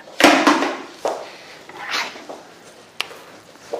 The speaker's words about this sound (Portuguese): Então, assim, peraí, gente, trocar de caneta.